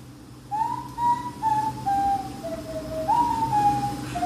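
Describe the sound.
Someone whistles a pop song melody on its own: a string of clear, sustained mid-pitched notes that step gradually downward, then leap back up, with faint background hum and no talking.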